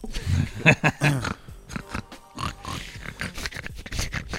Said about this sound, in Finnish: Sika.